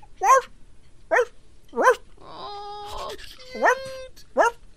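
dog barking

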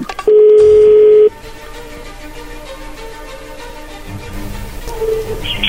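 telephone being dialed

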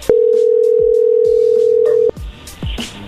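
telephone dial tone

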